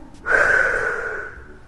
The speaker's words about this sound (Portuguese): Tome uma respiração profunda. Solte o ar pela boca